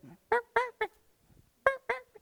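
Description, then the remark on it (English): A voice imitates a chicken clucking: three short, loud, honking clucks in quick succession, a brief pause, then two more, clear with no talking. “I've raised some chickens before, and you know what chickens do? They look at the ground.”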